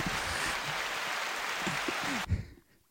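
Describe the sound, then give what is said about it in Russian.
A dense burst of steady applause sound effect, loud and crackling, that stops dead after a couple of seconds, leaving a brief low thump and near silence behind it. “Давай начнем с аплодисментов.”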